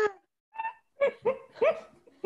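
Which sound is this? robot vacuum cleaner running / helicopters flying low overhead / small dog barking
small dog barking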